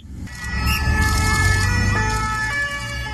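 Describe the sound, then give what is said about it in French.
An ambulance siren wails steadily, its two-tone pitch shifting over a low engine rumble, as Jonathan Daval is evacuated by ambulance during his trial, with no voices present. “Et alors que Jonathan Daval est évacué en ambulance,”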